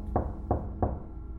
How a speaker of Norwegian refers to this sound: Det banket på døren.